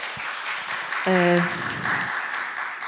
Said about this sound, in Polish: jest chyba najgorsza praca w Polsce obecnie e, i to myślę, że większość z nas nie zdaje sobie sprawy, ile wyzwań ma przed sobą e, dyrektor szkoły i dlatego poproszę Państwa o brawa dla tych ludzi, którzy tu siedzą, naprawdę i dla tych, którzy siedzą.